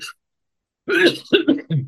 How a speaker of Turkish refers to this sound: İstersen burada bitirelim. Öksürük bizi bitirmeden. hay hay. Geçmiş olsun. Eyvallah sevgili dostlar kusura bakmayın biraz e, öksürük fazla girdi bu sefer e, rahatsızlık verecek şekilde.